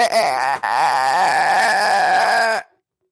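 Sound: voice imitating chirping crickets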